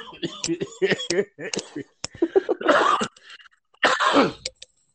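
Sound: coughing fit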